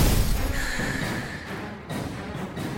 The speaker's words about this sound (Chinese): 爆炸声响起，接着孙丽莎就发现。那不是爆炸，只见浓浓的黄色烟雾不断涌出，很快的遮挡了所有人的视线。